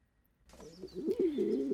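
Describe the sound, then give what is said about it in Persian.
Pigeons cooing in a pigeon coop in low, rolling, throaty murmurs that swell and dip, starting after a brief quiet moment and growing slightly louder toward the end, with no voices present. “عزیز دلم من اینجام توی لونه کفترای بابام”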